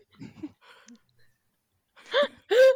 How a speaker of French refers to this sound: je peux lui donner un autre jouet qui ne fera pas quick quick